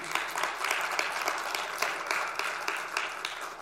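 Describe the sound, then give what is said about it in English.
A church audience applauds a 93-year-old World War II veteran, a dense, steady clatter of many hands clapping at once, fairly loud, holding even for the whole stretch with no voices above it. “Yeah, you can clap up that dude.”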